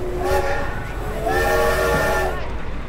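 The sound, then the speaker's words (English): A historic, brightly colored train at the 150th anniversary celebration of the Transcontinental Railroad at Promontory Summit, Utah, in May 2019 sounds its whistle in two sustained, harmonic blasts, loud, over a steady low rumble and faint background murmur; nearly 20,000 people attend. “A group of people strolls by, dressed up in centuries old fashion, and right behind them sits some very brightly colored trains.”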